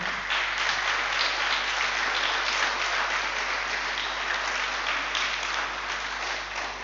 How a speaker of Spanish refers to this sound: Así que quienes nos invitan, o perdón, nos, nos visitan de la escuela, levanten su manito. Dos. Bueno, les damos un aplauso de bienvenida.